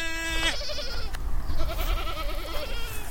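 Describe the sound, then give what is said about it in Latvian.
Goats bleat several times in quick succession, wavering, nasal calls overlapping one another, with a steady outdoor rumble underneath and no talking. The goats have come to eat the bushes. “ah, un re, kur arī mums ir atnākuši kaziņas ēst krūmus, tā jau es arī domāju.”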